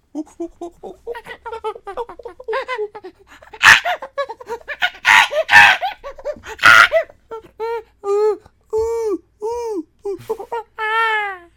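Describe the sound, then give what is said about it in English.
A person does a chimpanzee impression: rapid panting hoots build into several loud, harsh screeches, then settle into a series of rising, arching hoots that end in a high pitched call. “All right, do your best chimp noise.”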